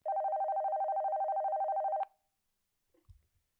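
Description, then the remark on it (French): A telephone rings once with a steady, warbling electronic tone lasting about two seconds as a call is placed to the family allowance office (CAF), then cuts off abruptly, followed by silence and a faint click as if the line is picked up. “Je vais leur passer un coup de téléphone.”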